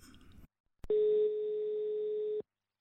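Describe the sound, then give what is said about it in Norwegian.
A single steady ringback tone on a phone line while calling a man, one long loud electronic beep of about a second and a half, after a brief click and quiet, with no voices. “Kanskje vi skal ringe han? Vi gjør det.”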